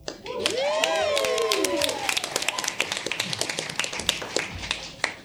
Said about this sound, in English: Hello? Yeah, you, you guys can clap. It's totally fine.